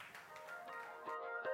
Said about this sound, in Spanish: ¿Alguien me puede decir amén y darle un aplauso al Señor? Dáselo, dáselo.